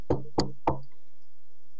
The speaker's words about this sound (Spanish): Así que llegó a la casa de y golpeó la puerta. Y cuando golpeó la puerta